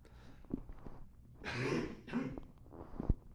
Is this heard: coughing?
yes